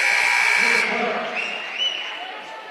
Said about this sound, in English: Sub buzzed in at the scores table, but he indicates that he's for the shooter stick with the lineup on the floor.